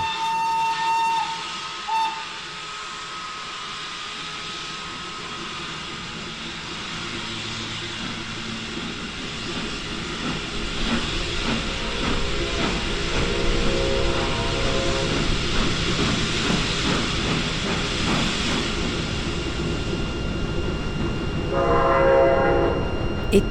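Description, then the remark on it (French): A train rumbles steadily along the rails with rhythmic clacking, while a horn sounds in sustained tonal blasts, loud, with no voices present. “1933, sur les routes et dans les trains, vers Prague et peut-être Genève ou Paris.”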